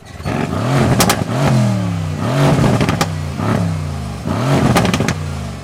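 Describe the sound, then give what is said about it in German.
A loud tuned car engine revs hard several times in quick succession, each rev rising and falling, punctuated by sharp cracking backfire pops near the peaks. “dann gibt es wie Kanonenschläge, Fehlzündungen wie beim Rennsport.”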